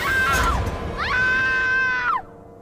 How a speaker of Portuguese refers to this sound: as irmãs escutaram a amiga Kátia berrar